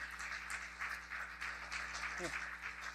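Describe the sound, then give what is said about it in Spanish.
An audience applauds steadily for about three seconds, a dense, even wash of many hands clapping at once, with a brief voice rising through it near the end. A church audience applauding the Lord for its online ministry. “Ah, están comunicándose ahora bien profesionalmente, pero un aplauso al Señor por todo nuestro ministerio en línea.”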